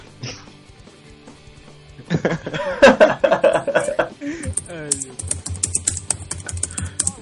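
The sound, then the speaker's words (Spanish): Rapid clicking of someone typing on a computer keyboard, a busy clatter that starts after a quiet moment, mixed with chuckling and laughter. “¿Quién está tecleando?”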